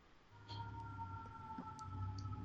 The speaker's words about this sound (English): Oh, they're coming for you. that yeah, you heard the uh, sirens. No, that was the uh, fire department. not not me, thankfully.